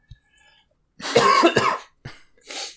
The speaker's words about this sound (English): Um, so yeah, like, of course, as soon as you throw to me, I have to cough.